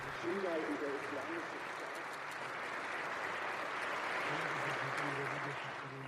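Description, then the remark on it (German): Sustained applause in a parliament chamber for numerous Yazidi representatives rising in the visitors' gallery, a dense, steady wash of clapping that continues for several seconds at an even level, with faint voices murmuring underneath. “Auf der Besuchertribüne erheben sich zahlreiche Repräsentantinnen der Jesiden, die mit Beifall bedacht werden.”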